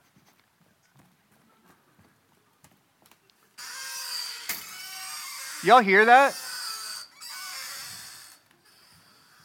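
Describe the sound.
A rusty gate creaks for several seconds, a rough grinding scrape rising into a loud, wavering squeal midway before fading; a voice speaks briefly at the end.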